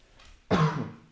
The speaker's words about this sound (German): Das war nur ein Huster.